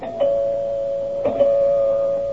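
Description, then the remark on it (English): An apartment doorbell rings with a sustained electric buzz, a steady bright tone holding for a couple of seconds with a slight stutter midway, loud with no voices. “Finally, the doorbell rang.”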